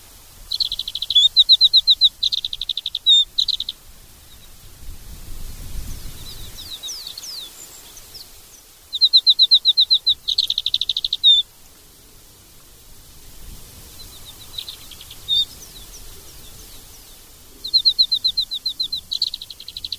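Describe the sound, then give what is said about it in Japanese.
An Alpine accentor on the peaks of Zao sings in repeated bursts of rapid, high, trilling warbles, separated by pauses, while steady wind crossing the Zao ridges rushes and rumbles underneath throughout. “岩ひばりのさえずりが蔵王の峰を渡る風に吹き消されるように流れていきますそれでもどこまでも聞こえそうな力強さを持ったさえずりでした”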